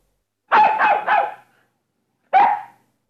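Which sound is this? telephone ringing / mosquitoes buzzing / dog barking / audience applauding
dog barking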